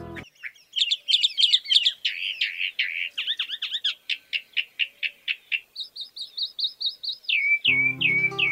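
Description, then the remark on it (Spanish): A songbird sings a rapid, varied song of bright high chirps and trills, with repeated rhythmic phrases and a few sweeping whistles near the end. No voices are heard. “Escuchamos ahora el canto de esta especie.”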